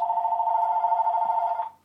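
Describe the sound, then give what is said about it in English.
A phone rings with a steady electronic tone, one sustained burst lasting under two seconds before cutting off. It's fairly loud, with no talking over it. “the phone is ringing.”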